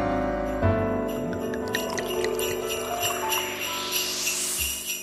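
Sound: jingling bells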